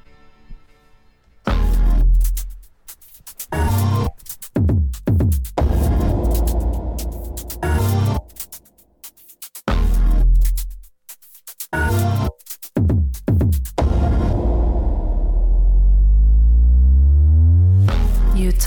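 A loud electronic track released in 2017, with heavy bass throbs, played in choppy stop-start bursts broken by brief silences, then swelling into a long sweeping synth glide over a deep sustained low end.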